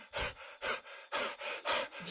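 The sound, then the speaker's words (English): A voice imitates a runner gasping for breath: about five quick, loud panting bursts in an uneven rhythm, with short pauses between them and no talking. “and you get all of that where people gasping out and gassing out”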